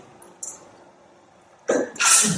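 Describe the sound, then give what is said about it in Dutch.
A single sneeze bursts out, a sharp intake followed by a loud, hissy explosive release after a brief quiet stretch. “Gezondheid.”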